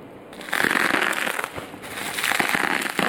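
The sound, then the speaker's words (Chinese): Unboxing of a small, tightly wrapped electric cooker ordered online in Thailand: steady crackling and crinkling of plastic wrap and packaging, with brief rustles and crunches over three seconds and no voices. “好，我先要把这个电锅给开箱，”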